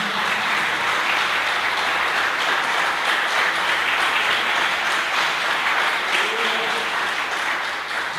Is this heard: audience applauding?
yes